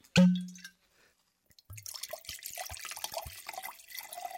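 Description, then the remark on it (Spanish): A wine bottle's cork gives one loud hollow pop, then after a brief silence wine is poured, gurgling and splashing steadily until the end. “Ah, primero abra la botella y después me vamos Lo primero es lo primero.”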